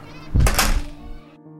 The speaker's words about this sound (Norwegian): lærerne gikk inn i klasserommet sitt, og så lukket de døren.